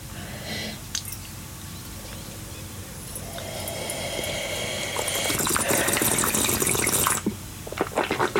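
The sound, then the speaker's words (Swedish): Wine pours steadily into a glass, the gurgling splash rising in pitch as the glass fills, fairly loud, then stops abruptly with a few small clinks afterward. “Mer vin. Mer vin.”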